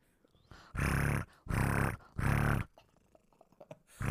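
A cat purrs right up against the microphone, loud, breathy rumbling swells coming in three steady cycles, then fading to soft rustling before another purr starts.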